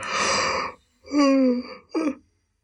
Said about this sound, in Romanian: Deci uh, e un, un căscat întrerupt de un ghiorțăit al mațului.